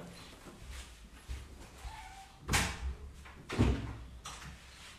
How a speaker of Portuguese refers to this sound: Rapidinho, gatinha tá querendo sair daqui, tá? Deixa eu só abrir a porta pra